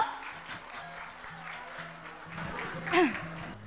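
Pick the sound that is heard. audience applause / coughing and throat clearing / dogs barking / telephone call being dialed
audience applause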